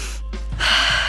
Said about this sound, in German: Nervöses Einatmen.